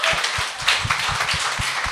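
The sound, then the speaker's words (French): A crowd applauds in a steady, dense wash of clapping, with a few louder claps falling into a loose rhythm throughout. No one speaks over it. “ben, il t'attend que le monde applaudisse.”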